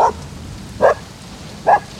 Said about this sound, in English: Is that a dog? Poor lost lonesome dog coming from the woods.